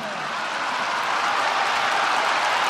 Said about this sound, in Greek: Δείτε ποιοι χειροκροτάνε.